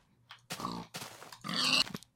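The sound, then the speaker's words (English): Three short, raspy grunts from a video game pig come in quick succession, fairly loud, the last one slightly squealier, with no talking over them. “Now, do you want to get the pig, or have you forgotten about the pig?”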